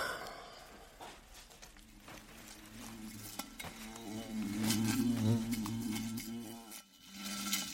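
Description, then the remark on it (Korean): A large, fierce-looking wasp buzzes around a window frame, seemingly seeking a way into the room, in a steady, wavering drone that swells louder midway, then cuts off abruptly before briefly returning, with faint rustling and clicking in the background. “크고 사납게 생긴 말벌은 유리창 틀을 맴돌며 어떻게든 방으로 들어올 길을 찾고 있는 듯 했다.”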